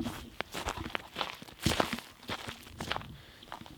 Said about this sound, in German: Das Knacksen de, des Frosts oder des Reifs auf dem Boden. Oh, es ist echt kalt geworden.